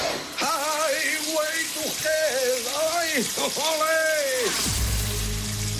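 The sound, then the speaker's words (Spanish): A famous man sings a wavering melody over the steady hiss of a running shower, his voice loud; the water noise continues briefly after the singing stops. “yo sé que tienes a un nombre en la mente de este famoso que canta bajo la ducha, pero te voy a dar una segunda oportunidad y vamos a escuchar esa voz una vez más.”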